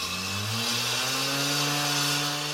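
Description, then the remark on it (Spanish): A chainsaw engine drones loudly and steadily in a forest as machines cut down the trees, its pitch shifting slightly as it revs, with a harsh buzzing whine that drowns out everything else. “Era un ruido de motores, un ruido que ahogaba los demás sonidos del bosque.”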